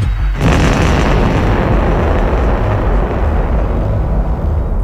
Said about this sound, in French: L'explosion de la rue Archimède se révéla de fait beaucoup trop forte et entraîna la destruction de la mosquée, mais également l'incendie d'une dizaine de logements adjacents et la mort d'une trentaine de personnes.